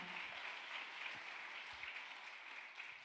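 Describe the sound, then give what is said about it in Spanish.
An audience applauding steadily for the Lord, a dense wash of many hands clapping at an even level throughout, with no voices standing out over it. “Vale, un aplauso fuerte al Señor.”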